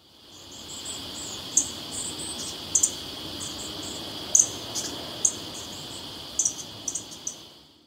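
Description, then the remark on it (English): Superb fairy wren calls: short, high, thin chirps and trills scattered in quick bursts over a steady, buzzing drone of insects, with no one speaking. “Superb fairy wrens are a common sight on the Australian National University campus in Canberra.”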